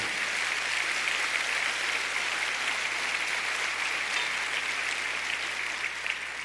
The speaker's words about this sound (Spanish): Si va a aplaudir al Señor, dele un fuerte aplauso.